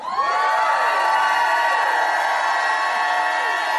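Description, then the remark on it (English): A large crowd shouts and whoops together in a sustained, loud roar of many overlapping voices, high-pitched cheers layered over one another for several seconds without pause. “Lift both hands and shout, woo! Lift a hand. Shout like you never shouted in your life.”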